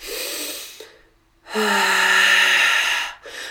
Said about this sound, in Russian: И первое, что нужно сделать, это начать дышать. Кроме того, э, такое более медленное, глубокое дыхание, когда, э, когда выдох длиннее, чем, чем вдох, раза там, в два,